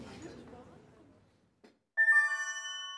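A long, soft breathy exhale like a sigh fades out, followed by a faint click and then a bright, ringing phone message notification chime that sounds once and slowly decays.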